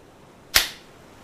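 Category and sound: human body sound, hand clap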